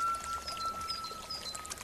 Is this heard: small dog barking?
no